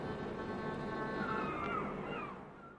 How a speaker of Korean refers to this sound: …의 …에 코끼리 소리 나왔어요